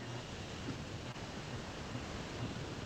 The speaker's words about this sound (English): I just realized I never turned any of the fans or anything off in here.